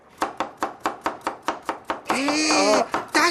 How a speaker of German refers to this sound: Das Einzige, was hier klappert, das ist mein Messer. Ich hack nämlich gerade Möhren. Seht ihr?